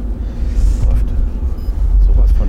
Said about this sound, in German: schön, hört er sich an. Das, das, Beste, das Beste an dem Auto ist eigentlich, dass er kurz ist.